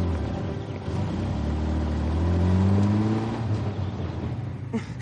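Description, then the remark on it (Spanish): A car waiting outside a night school starts, its engine rumbling, then revs up with a rising whine as the vehicle pulls away, its steady drone continuing throughout with no voices. “John arranca.”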